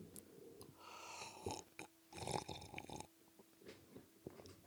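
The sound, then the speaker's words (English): Quiet slurping sips of a Rhinegeist Christmas beer, two noisy bursts about a second apart with soft breathing between them and no talking. “That was a classy sip brought to you by Rhinegeist.”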